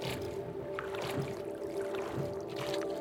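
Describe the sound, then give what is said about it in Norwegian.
A small rowboat rowed by two men moves through water, with a steady wash and periodic splashy strokes of oars dipping and pulling, moderately loud, with no voices. “Så ser de en liten robåt som kommer mot dem. Og I den båten var det to mann som rodde.”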